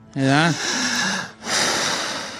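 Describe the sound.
A person vocally imitates patients hyperventilating, with a voiced gasp followed by two long, loud, airy panting breaths, with no words spoken.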